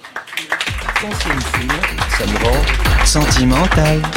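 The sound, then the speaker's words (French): An audience applauds steadily at a live France Inter radio broadcast from the Bel Air studio at the Maison de la Radio, with dense, crackling clapping that builds and stays loud for several seconds, while voices speak and call out over it. “qu'on peut applaudir et qu'on retrouvera la semaine prochaine.”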